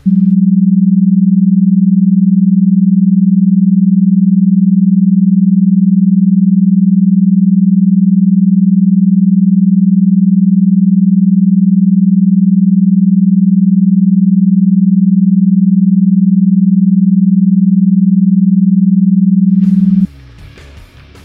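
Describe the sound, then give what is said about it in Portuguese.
A binaural sound example, produced by two different sound sources: a steady, low, pure hum holds at one pitch for about twenty seconds without a break, then cuts off into a brief burst of rough, noisy sound at the end. “Reginaldo, solta um exemplo aí de som binaural.”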